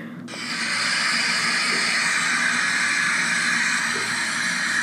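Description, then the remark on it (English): A hair dryer blows steadily, a loud, continuous airy whoosh with a faint motor hum underneath, holding an even level for nearly five seconds. “That must be a Conair, because I know good and well. that sounds like a blow dryer.”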